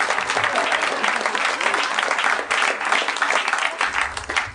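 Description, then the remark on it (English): A crowd bursts into sustained applause for Jeff Davis, the comptroller of Harmontown, who has just received his comptroller sash. Many hands clap in a dense, steady wash at a loud, even level for several seconds, with no one speaking over it. “Seems like a good time to give him a round of applause.”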